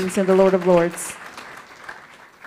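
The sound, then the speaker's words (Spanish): An audience in a church service applauds the King of Kings with a steady, dense patter of clapping that continues after a voice sounds over it in the first second, then gradually thins out. “Él es fuerte aplauso al Rey de Reyes y Señor de Señores.”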